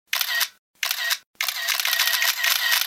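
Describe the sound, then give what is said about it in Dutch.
Two quick camera shutter clicks, each crisp, followed by a longer run of rapid-fire shutter sounds lasting over a second, with no voices present. “Stel je voor dat telkens als je zou knipperen, er zo'n fototrekgeluidje zou komen.”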